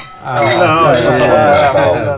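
Several glasses clink together in a Christmas toast, bright ringing taps layered over cheerful overlapping voices of a group.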